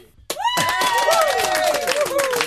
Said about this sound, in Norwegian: Ja, setter i gang eh, kjenningsmelodien vår, og vi klapper.